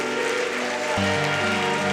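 A church audience claps steadily as applause for the Lord, the dense applause continuing throughout, while sustained musical tones swell in underneath about halfway through.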